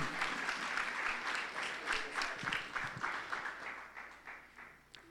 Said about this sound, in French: Merci. Donnez un applaudissement. Applaudissement. Alléluia. Merci.